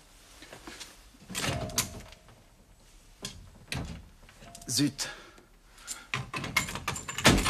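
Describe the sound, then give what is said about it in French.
A stuck sideboard cupboard door being tugged at: several rattling knocks and thuds in uneven bursts, with a brief spoken exclamation between the attempts. “Il faut juste réparer la porte du buffet.”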